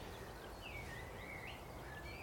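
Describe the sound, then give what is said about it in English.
A short, scratchy warble of a whitethroat, faint, with quick rising and falling notes over a steady outdoor hiss. “Just a little scratchy song of the white throat.”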